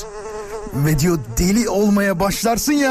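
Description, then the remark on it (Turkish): A thin, steady mosquito-like whine, apparently voiced by a person imitating a mosquito buzzing by the ear just as one falls asleep, droning fairly loud before talking takes over and continues with rising and falling pitch. “O vızıltı sesi gelir”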